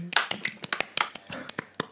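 A short burst of brisk hand clapping for the third-place finisher at a prize ceremony, about a dozen sharp, uneven claps in under two seconds, moderately loud and with no voices over it.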